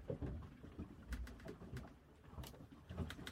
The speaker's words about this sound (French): Lorsqu'arriva le septième jour, je lâchai une colombe. La colombe prit son vol.